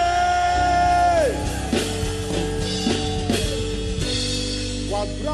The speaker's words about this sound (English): When you are shouting glory, I want you to understand why you are shouting glory. It is not for fun. Ah, it's not for fun.